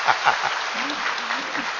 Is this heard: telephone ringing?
no